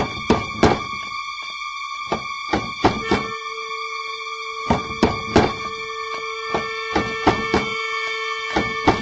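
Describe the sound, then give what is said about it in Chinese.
Someone knocks on a vegetable seller's door in the middle of the night, again and again in uneven clusters, each rap sharp and loud, while a steady high-pitched hum continues underneath. No one speaks. “你就快开门吧。”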